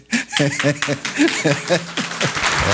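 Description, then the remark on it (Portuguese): A crowd applauds in a dense, steady patter of clapping while laughter rises over it in short bursts, loud throughout, at a club presentation in an arena, after Renato asked for applause, especially for the players. “o Renato pediu aplausos.”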